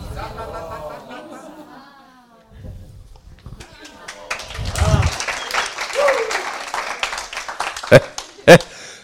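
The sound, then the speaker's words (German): Audience applause builds from scattered claps into a dense, crackling patter of many hands, with a couple of sharp louder claps near the end and voices chattering underneath. “Ich habe noch nie so leicht Applaus bekommen.”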